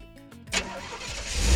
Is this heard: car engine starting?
yes